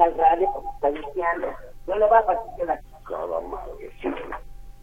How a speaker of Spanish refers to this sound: Le voy a pedir que antes de que continúe bájele al radio porque me estaba viciando el sonido, ¿sí?